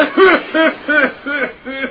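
A coughing fit of five harsh, voiced coughs in quick, even succession, loud, with no talking around them.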